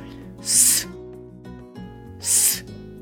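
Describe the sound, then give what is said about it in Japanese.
Two sharp, bright hissing 's' sounds made by a voice blowing breath against the front teeth, each about half a second long, separated by a short pause, fairly loud, with a faint background hum underneath. “で、あの一方でその S の音っていうのは、えー、こちらはですね、えー、8話目の方でシェアしているんですけれども、実はかなり鋭い音なんですよね。息をこう前歯にぶつけるような形で”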